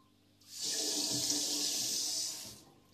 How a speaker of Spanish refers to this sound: Sonido de fondo. Qué relajante el agua.